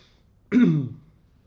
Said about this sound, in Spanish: No, tengo un poquito de, tos.